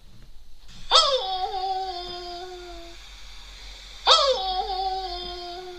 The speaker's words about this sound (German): ich sag mal, das ist ein Hund. Und oh, das ist ein Hund.